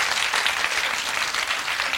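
Steady audience applause, a dense wash of many hands clapping at an even, fairly loud level throughout, with no voices standing out.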